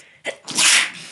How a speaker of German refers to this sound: Gesundheit.